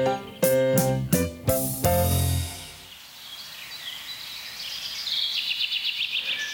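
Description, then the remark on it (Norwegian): A few loud, sustained musical chords ring out, then fade into a quieter forest scene on a sunny summer day where birds sing and chirp in repeated high trills, with no voices. “En nydelig sommerdag i skogen. Fuglene synger, sola skinner.”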